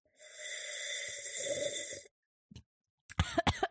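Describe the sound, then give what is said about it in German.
A long, airy slurping of wine, a brief pause, then a quick cluster of sharp coughs as the wine goes down the windpipe. No one talks. “Wenn nicht die Hälfte davon fast in der Luftröhre landet.”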